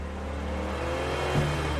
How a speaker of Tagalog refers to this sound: umaangil ang makina ng land cruiser ni Pepe Saldivar paakyat sa bundok